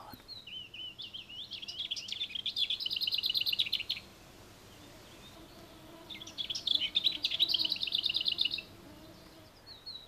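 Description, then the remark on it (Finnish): Lesser whitethroat song: two bursts of high, scratchy warbling, each starting with a soft chatter and ending in a dry, rapid rattle, separated by a short pause with faint background birds. “Hernekerton laulu alkaa hiljaisella lavertelulla.”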